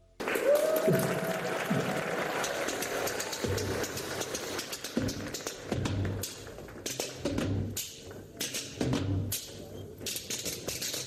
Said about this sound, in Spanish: Esta especie de rumba delirante con cucharas. Es una rumba eh, israelí. rumba israelí con cucharas.